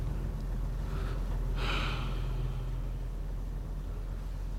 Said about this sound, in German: Es tut gut, die kalte Nachtluft zu atmen.